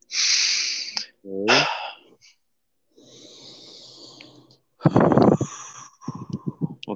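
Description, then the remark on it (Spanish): Deep breaths drawn in and pushed out as a short breathing exercise: a few airy, hissing inhales and exhales, one ending in a brief voiced sigh, with no talking. “Ahora quiero que me ayudes con una pequeña respiración profunda.”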